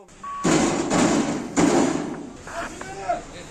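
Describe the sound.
Heavy, booming thumps as a handcuffed driver punches a police car from inside, trying to get out, three loud blows in quick succession, followed by fainter knocking and muffled voices in the background.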